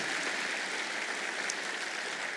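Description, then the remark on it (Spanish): An audience applauds Jesus steadily, a dense, even wash of clapping that holds at a constant level for a couple of seconds with no voices rising above it. “Con ese aplauso a Jesús le estamos diciendo.”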